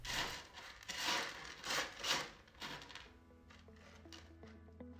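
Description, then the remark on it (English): A cat scratching and digging in its litter box, several rough, gritty raking bursts, then quieter scraping as a faint steady tone hums in the background. “But my favorite sound is the sound of him digging the cat litter, because the sound means that his shit or pee in the right place rather than on my bed.”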